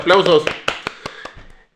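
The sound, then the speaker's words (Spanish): A short voiced exclamation gives way to a handful of sharp hand claps, evenly spaced and slowing slightly as they fade, a small burst of applause rather than a crowd. “¡Eh! aplausos!”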